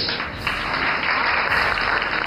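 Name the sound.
applause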